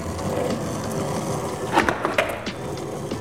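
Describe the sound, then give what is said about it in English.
A longboard rolls steadily on concrete with a continuous gritty wheel rumble, broken by a couple of sharp clacks and knocks near the end as the board shifts. “Wish I took my skateboard too, not just my longboard.”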